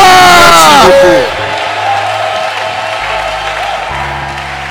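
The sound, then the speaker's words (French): A church audience cheers and applauds loudly to acclaim the Lord, with whoops and shouted voices over dense clapping at first, then the applause continues steadily as a broad, sustained crowd roar. “Waouh, est-ce qu'on peut acclamer le Seigneur? Waouh! Bénissons, est-ce qu'on peut se tenir debout pour son des cris de joie”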